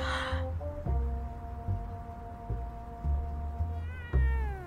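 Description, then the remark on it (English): A cat meows, drawn-out and insistent, its cries running together into a long plaintive call that wavers in pitch near the end, with no one talking. “Oh, hello, kitty.”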